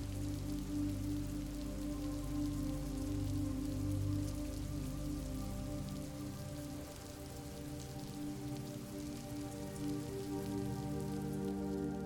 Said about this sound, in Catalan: Cauen les primeres gotes i et refugies en una petita cavitat sota unes roques, contemplant amb admiració el fantàstic espectacle de la pluja.